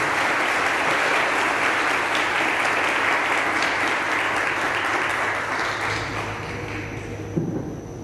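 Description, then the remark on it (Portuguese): A large church audience applauds to the Lord for the youth, a steady, dense, sustained wash of clapping that fades slightly toward the end, with a low hum underneath and no talking. “Vocês podem dar um aplauso ao Senhor pela juventude?”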